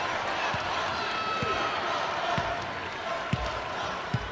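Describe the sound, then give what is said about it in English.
Savannah Wheeler dribbles a basketball on a hard court during a Raiders game against La Tech, five steady bounces roughly a second apart, over a dense, continuous roar of arena crowd noise. “Wheeler with the ball on the floor.”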